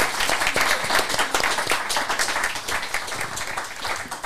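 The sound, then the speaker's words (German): Steady audience applause for a tasty dish, many hands clapping in a dense, crackling wash that holds at an even loudness for several seconds, with no voices standing out. “nochmal einen großen Applaus für so ein leckeren Werk.”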